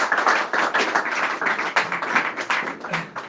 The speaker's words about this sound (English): מוריי ורבותיי, באמת, tremendous חיזוק, another round of applause for רבי ארוש, באמת, מכל הלב.